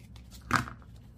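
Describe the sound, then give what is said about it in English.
A single quick snip of small scissors trimming a little bit off a piece for an art project, crisp with no talking. “My little scissors. Oh, they're right there. Okay, I'm just going to trim this little bit off there.”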